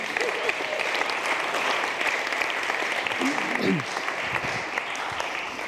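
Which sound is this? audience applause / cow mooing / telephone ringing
audience applause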